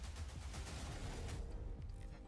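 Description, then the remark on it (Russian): Dense, rapid gunfire in a game trailer rattles continuously under a booming, bass-heavy mix, loud, with overlapping bursts blending into a steady barrage. “Щиты. Стрельба. Пушка.”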